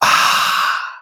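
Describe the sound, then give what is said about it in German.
A nasal spray is squirted and sharply sniffed in, a single airy hiss lasting about a second that trails off, with a breathy exhale-like quality. “Ja, äh, nee, ich habe einfach nur meine Nase geputzt, aber wenn du willst, kann ich für dich auch einmal kurz so ein Nasenspray reindonnern damit, ja, äh, damit auch meine Stimme und damit ich meine Nase nicht so oft hochziehen muss.”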